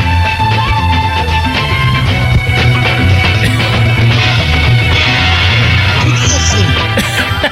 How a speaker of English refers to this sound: But the problem is, is yeah, it's supposed to be this picnic, but you get this music It sounds like it's from SWAT. so it's kind of, it kind of sounds like this.